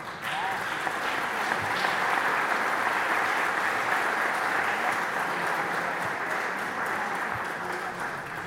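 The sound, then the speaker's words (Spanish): Sustained audience applause for two presenters after their talk, a dense steady wash of many hands clapping at even loudness for several seconds, with faint murmuring voices mixed in. “Bueno, creo que ambas expositoras merecen un aplauso.”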